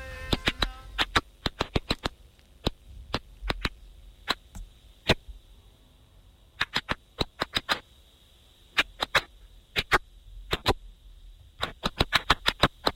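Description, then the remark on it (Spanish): Sharp, dry clicks pop in irregular bursts, sometimes singly and sometimes in quick clusters, over a quiet steady background hiss; the pattern is reminiscent of Morse code. These are the clicking sounds of a stressed plant, recorded by researchers at Tel Aviv University. “Esto es una planta gritando.”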